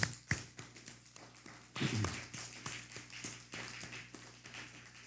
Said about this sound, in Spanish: Vamos a dar un fuerte aplauso a República Dominicana.